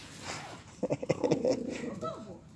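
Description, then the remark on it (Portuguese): A small dog wearing clothes growls in a quick run of rough, pulsing bursts, with a faint voice murmuring around it. “Foi ignorado por um, o outro foi quase mordido.”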